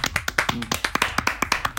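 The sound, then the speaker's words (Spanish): Applause from a small group for Jimbo, the week's Top All Stars winner: a quick, uneven run of sharp hand claps, crisp and moderately loud, with no voices over it. “Y un aplauso para la ganadora Top All Stars de la semana, Jimbo, que fue la mejor del grupito, Y sí, la mejor del grupito y dentro de los looks está también el top 3, así que saben que aplaudámosla.”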